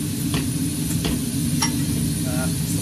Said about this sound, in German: den Brenner anmachen. Ihr hört schon ein bisschen fauchen